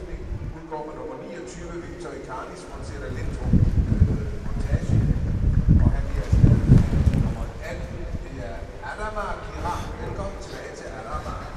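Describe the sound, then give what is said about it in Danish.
Wind buffets the microphone in gusty, low rumbling bursts, swelling loudest through the middle, while people commentating on a football match talk underneath and are partly masked by the blustery noise. “Uh, det blæser nu. Jeg håber, I kan høre, hvad vi siger derhjemme.”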